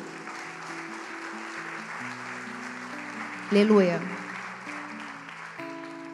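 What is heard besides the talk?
audience applauding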